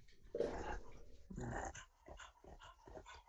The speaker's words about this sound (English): My dog just jumped up next to me. He's he's panting really hard.